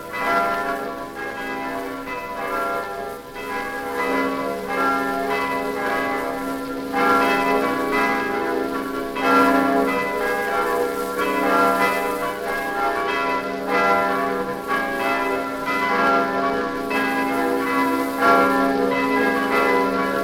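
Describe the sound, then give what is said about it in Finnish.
Church bells of the old church of Buda Castle in Hungary ring out a steady chime melody on New Year's night, their rich overlapping tones sustaining and blending continuously, fairly loud and resonant with no voices present. “Budan linnan vanha kirkko kertoo kellosävelmässään unkarilaisten uljaasta taistelusta turkkilaisia vastaan, ja tänäkin yönä kuunnellaan saman kellosävelmän tarinaa kaikkialla Unkarissa.”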